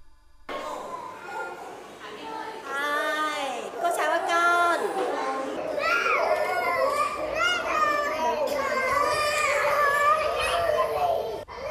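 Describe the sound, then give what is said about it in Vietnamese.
Young children at a kindergarten in Hoài Đức district, in the morning, making noise at once: high-pitched voices overlapping in steady chatter, with bursts of laughing, singing and wailing cries, fairly loud throughout. “Buổi sáng của cô giáo Thu Thủy, trường mầm non mùa 10 tháng 10 huyện Hoài Đức bắt đầu bằng tiếng cười, tiếng ca nhưng cũng bằng cả tiếng khóc”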